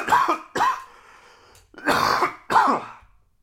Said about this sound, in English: coughing nowadays can make people think, oh, is he sick? What's he carrying? What's he doing? And this is where I can assure you no, no, no, no, no. Pot use and laughing in a certain way and the general allergens and dust of a day's work